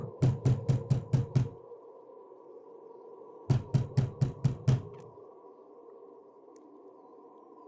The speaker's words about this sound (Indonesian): Lagi-lagi, pintu kamarnya diketuk dengan ketukan yang sangat keras.